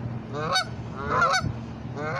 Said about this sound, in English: oh, hold on y'all. My my ducks is trying to tell me something.